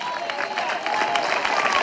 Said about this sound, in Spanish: Dele fuerte ese aplauso.